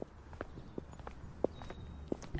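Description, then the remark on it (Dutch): Footsteps walk at an unhurried, steady pace outdoors, each step a distinct crunch against a soft background hiss, with no voices. “En dan moeten we even doorlopen.”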